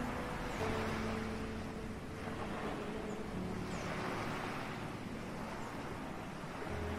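Ocean waves wash steadily onto a sunny seashore in a continuous, moderately loud roar, with surges swelling and receding, plus a low engine-like hum underneath. No one speaks.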